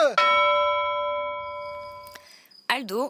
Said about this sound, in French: Elles se sont endormies sur les tables, impossible de les réveiller, même à grands coup de cloche!